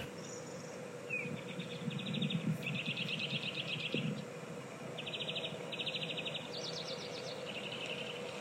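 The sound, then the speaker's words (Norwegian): Lots of birdsong outdoors on a sunny day in Easter week: bursts of rapid, high trilling chirps repeat every second or so over a steady low background hum, moderately loud, with no one talking. “Og sol og fint og Og masse fuglekvitter utafor.”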